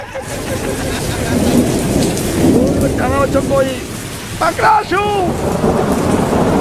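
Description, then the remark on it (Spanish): Heavy rain pours steadily and loudly on Avenida Paulista, with a low thunder rumble underneath, while a couple of brief raised voices cut through the downpour midway. “Aquí, por Avenida Paulista, grave está lloviendo.”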